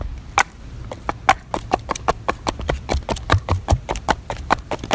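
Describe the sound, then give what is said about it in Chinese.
Wooden geta clogs clack along a street in Kyoto, Japan, at night, in a quick, steady walking rhythm, each step a sharp, hollow knock, about twenty in all, over a low background rumble. “好了，不缠大家了，我们要继续在京都的夜色里漫步，你都能听到木屐的声音。”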